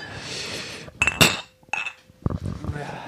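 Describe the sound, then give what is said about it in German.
Glasses clink together sharply a few times in a quick toast, bright, with murmured voices and a brief lull around it. “Ja. Prost.”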